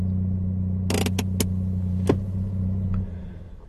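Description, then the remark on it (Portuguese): A car engine hums steadily while a few sharp mechanical clicks and rattles sound, then the engine winds down and cuts off as the car pulls over and parks. “Deixa-me estacionar aqui para podermos falar.”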